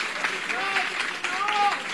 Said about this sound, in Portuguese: Mergulha. Pode aplaudir mesmo. Glória a Deus.